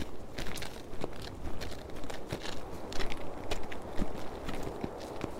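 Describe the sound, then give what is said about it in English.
Steady footsteps walk along a suburban street, each step a crisp, gritty crunch in an uneven rhythm over a faint constant hiss, with no one talking. “All right, we can go a little further on foot.”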